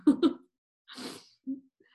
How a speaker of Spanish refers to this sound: ¿Qué alguien habrá estornudado? No sabemos.